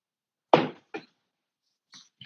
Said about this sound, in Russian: Секундочку, воды попью.